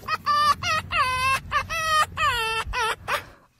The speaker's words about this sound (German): das Lösungswort war keckern. Das Keckern ja, des Fuchses. Tatsächlich, ja. Und wir hören ja. ihn nochmal keckern.